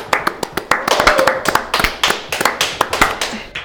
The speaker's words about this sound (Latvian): Aplausī!